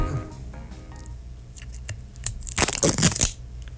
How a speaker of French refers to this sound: fermé qu'un plastique jusque sur le bouchon, mais il n'y a pas de petit euh, pointillé qui me permet de déchirer ça